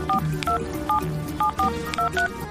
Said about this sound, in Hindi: उन्होंने कहा कि जैसे ही आप पहुँचे तुरंत उनके सेल फोन पर बात कर लें तो डायल करो उनका नंबर